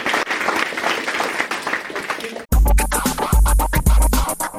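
An audience claps steadily for about two and a half seconds, a dense wash of applause, before it cuts off abruptly into loud, rhythmic music with heavy bass pulses.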